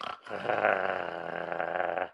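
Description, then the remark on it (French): A person imitates the snarling growl of wolves in a Tex Avery cartoon, a rough, sustained guttural rasp lasting about two seconds after a brief pause, loud, with no words spoken. “Alors il y a un petit lapin avec des loups et qui commence tous”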